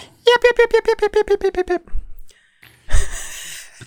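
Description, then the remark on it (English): A voice imitates a high-pitched dog yapping, a quick run of about a dozen sharp yips, followed by a pause and a breathy exhale or laugh. “However, it could be something like a yap from a dog, high pitched yap oh.”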